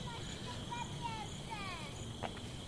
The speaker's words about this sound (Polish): Jesteśmy na placu zabaw, szlak Marianny Orańskiej, lądek zdrój, jest późno, słychać już cykady, słychać inne potwory, które hałasują.